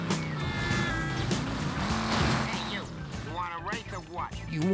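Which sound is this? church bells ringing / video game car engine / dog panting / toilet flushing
video game car engine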